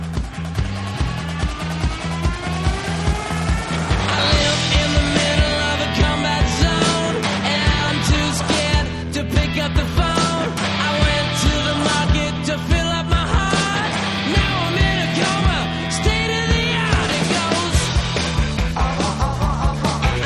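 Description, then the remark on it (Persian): A song plays loudly with a steady beat of percussive hits under sustained melodic instruments, the arrangement filling out after the first few seconds and continuing at an even level with no talking. “بیشتر از این صحبت نمیکنم یا آهنگ گوش بدیم و بریم سراغ برنامه این هفته”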